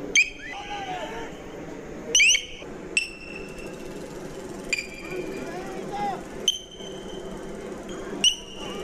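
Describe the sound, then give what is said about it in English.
A piercing high-pitched acoustic crowd-control tone blares at a protest in repeated sharp bursts, each with a sliding squeal, over a steady background of crowd noise and murmuring voices. “The sound that you're hearing is a crowd control tactic. It's, it's ear piercing. It actually hurts your eardrums.”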